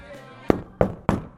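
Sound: loud knocking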